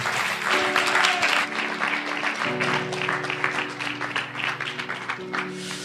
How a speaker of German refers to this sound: Begrüßt sie mal mit einem tosenden Applaus.